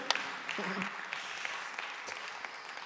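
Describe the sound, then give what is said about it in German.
An audience at a church service in Zürich claps steadily throughout: a dense, crackling patter of many hands at moderate volume, with a brief murmur of voices rising through the middle. “Applaus.”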